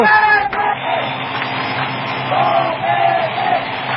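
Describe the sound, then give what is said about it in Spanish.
A large crowd shouts and roars continuously at the final moment of a competition in which the Mexican Bardo Topete faces Jalil, a dense, loud wall of voices that swells and surges slightly without letting up, with a brief sharp burst near the start. “El griterío, amigos, no deja oír ni los latidos del corazón.”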